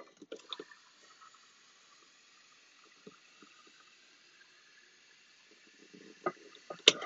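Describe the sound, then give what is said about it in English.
Water pours steadily into a dog's bowl for several seconds, a continuous splashing rush, with a few clunks and knocks at the start and again near the end. “Dogs want some water. Oh, running low on water. Get these puppers some water.”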